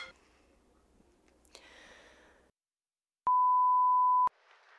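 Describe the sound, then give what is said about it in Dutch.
A phone signals an incoming call with a single loud, steady electronic beep lasting about a second, preceded by soft rustling and followed by faint hiss. “Oh, momentje, ik word gebeld.”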